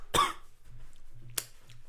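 A person coughs twice: a strong, harsh first cough, then a shorter, sharper one about a second later, over a faint low hum.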